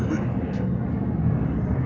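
A steady, heavy low rumble of an airplane passing overhead, loud and continuous throughout the short stretch, with no distinct breaks or changes.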